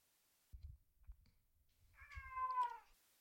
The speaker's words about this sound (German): Das war eine Katze. Das war die virtuelle analoge Katze, ne? Oh. das ist die Katze, die gleich aufs Klo muss.